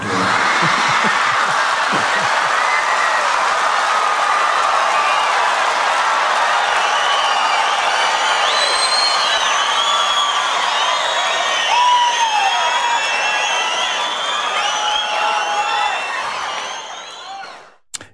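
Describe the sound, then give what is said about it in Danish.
A large comedy audience cheers and shouts at a comedian's rude words in a loud, sustained roar, with whistles and high yells rising above the din, keeping steady for most of the time before abruptly dying away at the end. “Ja, folk er helt vilde over øh, de frække ord her.”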